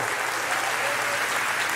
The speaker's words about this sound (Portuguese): Pode celebrar com as palmas ao Senhor. Glória a Deus em nome de Jesus. Aleluia!